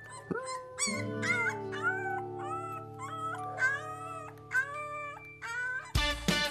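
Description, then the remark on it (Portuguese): A young wolf gives a series of soft, high whimpering howls, about eight short rising-and-falling cries in a row over a low sustained hum, ending in a brief burst of noise. “Ao seu lado, o lobo bebê, contente por ter companhia, uivava baixinho.”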